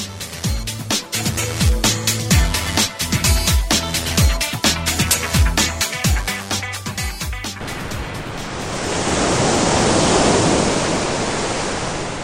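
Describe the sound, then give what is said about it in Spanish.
Upbeat music with a steady beat plays for several seconds, then cuts to a loud, continuous hiss of ocean waves washing onto a beach, swelling slightly with no voices. “La playa es muy bonita, pero estoy aburrido.”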